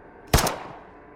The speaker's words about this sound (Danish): Der lød et skud, sekundet efter et til. Og så et til.